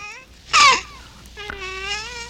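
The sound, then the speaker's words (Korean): A baby babbles and laughs: a short, bright squeal of a giggle, then a longer drawn-out cooing vocalization, with no adult voices. “애기 옹알이 소리예요. 애기 옹알이에다 웃는 야, 이, 이 소리 진짜 이거 이펙트로 들어서 그렇지 실제로는 거의 지금 한 십몇 년 동안 못 들은 것 같은데요.”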